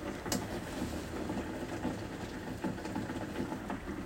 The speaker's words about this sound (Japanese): 皆さんこれ聞こえてますこれ雨ですよ雨ほら